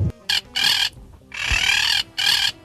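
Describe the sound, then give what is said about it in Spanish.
Loud squawking and clucking from birds in repeated harsh bursts, four raspy calls of varying length separated by short pauses, with no one talking. “Cuidado, pájaros.”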